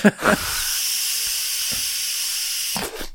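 An electronic cigarette being puffed: a steady, airy hiss holds evenly for over two seconds, bracketed by brief voice sounds at the start and end.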